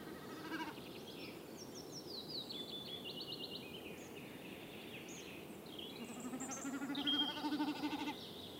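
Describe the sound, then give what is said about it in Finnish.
A common snipe drums in flight, its tail feathers making a fast, tremulous bleating whirr that rises and fades several times, with other birds calling in the background. “No tässä se taivaan vuohi mäkättääkin. Joo, tulee pyrstö tämä hieno ääni.”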